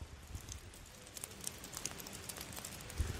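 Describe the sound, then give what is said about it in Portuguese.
Steady rain patters on a surface, a soft continuous hiss dotted with sharper drip-like taps and a few louder splashes near the end, fairly quiet and with no voices. “Graças a Deus, uma semana muito bacana, de muita chuva. Dá uma olhada no barulhinho aqui, ó.”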